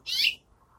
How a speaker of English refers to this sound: hello, Finch. They're building a nest up there. So I didn't do anything to you. They act like I'm going to get their nest.